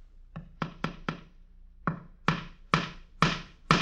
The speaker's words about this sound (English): The man is nailing a horse's picture to the wall. The horse is pawing the western skies in the classic attitude of pawing horses, and it is the top half of a calendar